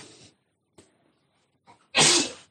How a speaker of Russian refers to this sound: Будьте здоровы